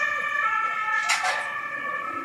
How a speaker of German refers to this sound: Oh Gott einen Krankenwagen vorbeilassen, dann geht's weiter. Ah, da ist Notarzt. Der Notarzt, genau.